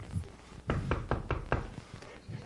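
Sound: knocking on a door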